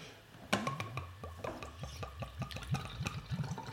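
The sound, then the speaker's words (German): Beer gurgles as it is poured from a bottle, a steady run of glugging pulses with bubbly, liquid splashes rising and falling in quick rhythm, moderately loud with no talking. “Das gluckert okay, danke, danke, danke, um Gottes Willen.”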